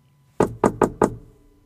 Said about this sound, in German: Es wurde an die Garderobentür geklopft.